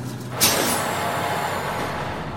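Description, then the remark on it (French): A bus comes to a stop where its passengers get off, with a sharp burst of air brake hiss, followed by a sustained low engine idle and a long fading high whine of released air. “On est bientôt arrivé Oui, regarde on va descendre ici.”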